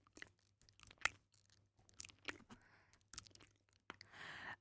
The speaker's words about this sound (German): Eine Übung ist da folgende. Kauen. Und zwar möglichst mit offenem Mund. Ich weiß schon, die Mama hat immer gesagt, beim Kauen Mund zulassen, aber in dem Fall machen wir jetzt eine Ausnahme. Richtig schön aufreißen.